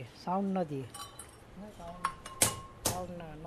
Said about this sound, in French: Regardez cette petite cloche. Elle, elle n'a pas réussi. Là, c'est raté parce que c'est pas bien soudé. Les bords ne sont pas rapprochés, donc le son n'est pas bon.